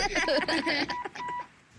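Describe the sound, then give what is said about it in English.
An electronic telephone, a secret phone, rings with short, repeated warbling tones, clear, over a busy background with some voices mixed in. “When that phone rings, he rushes out to save the day.”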